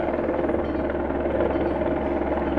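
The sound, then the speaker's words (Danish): A helicopter hovers overhead, hanging quite still, its steady rotor drone loud and continuous with a deep throbbing low end and no change in pitch or distance. Nobody speaks. “Så er der også helikopter.”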